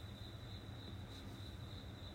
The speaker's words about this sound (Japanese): すごいスズムシが鳴いてる。マジで。すっごい。ちょっと待って、これね、でもね、そう、ちょっと暑くてね、あの、扇風機つけてたんだけど、聞こえる大合唱なわけ。もうスズムシ大合唱。